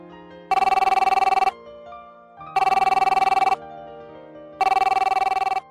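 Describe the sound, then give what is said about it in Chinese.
A telephone ringback tone on an outgoing call to a coworker's mobile phone: three evenly spaced rings, each about a second long, with bright buzzing tones and short gaps of quiet line hum between them. “于是，我拨我同事的手机，”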